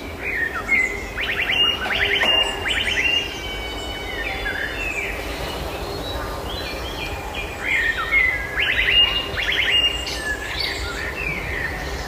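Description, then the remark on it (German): A song thrush in Münster sings two bursts of repeated, electronic-sounding whistled phrases that mimic an e-scooter's warning beep, clear, with a quiet pause between the bursts. “Wir haben in Münster zum Beispiel zwei Vögel, einmal eine Amsel tatsächlich und einmal eine Singdrossel, die dieses Warngeräusch von den e scootern nachmacht.”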